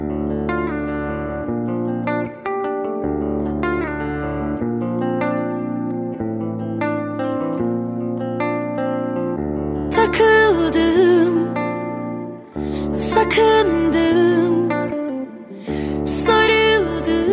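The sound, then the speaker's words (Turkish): The instrumental intro of a new single opens with steady, sustained chords and a plucked melodic line, then grows brighter and fuller with a wavering lead melody and crisp, shimmering percussion bursts. No voices are heard. “Yeni şarkımı bir hafta boyunca Apple Müzik'te Pusula listesinden de dinleyebilirsiniz.”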